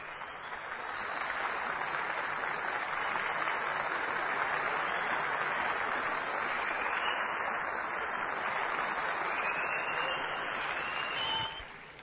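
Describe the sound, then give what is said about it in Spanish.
Sustained crowd applause welcoming a winning Diamond direct distributor from Puerto Rico, a dense steady wash of clapping that swells in after a moment, holds strong for about ten seconds, then cuts off abruptly. No one speaks over it. “me vais a ayudar a recibir a este gran ganador que viene desde Puerto Rico con un tremendísimo aplauso.”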